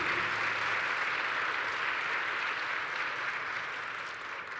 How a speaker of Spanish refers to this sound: Por eso dale un fuerte aplauso al Espíritu Santo, porque Él está aquí para cambiar tu manera de vivir.